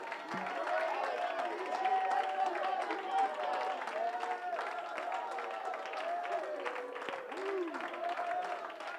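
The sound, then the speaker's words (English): An audience claps and shouts together in a sustained burst of Holy Ghost praise for Jesus, many voices raised in overlapping cries of praise over steady, dense hand clapping for about nine seconds. “If you love Jesus, just go into a Holy Ghost hand clapping voice raising.”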